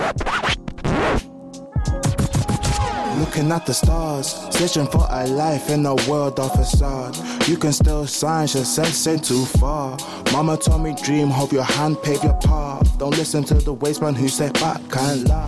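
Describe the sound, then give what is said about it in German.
A hip-hop track, a song, written, sung and produced by young people at the Krea Jugendclub in Bergisch Gladbach, with a steady, punchy beat and a rapper delivering fast rhymed verses in English, loud and up front throughout, with a short break near the start. “Was ihr hier hört, ist der Song …, geschrieben, gesungen und produziert von Jugendlichen im Krea Jugendclub.”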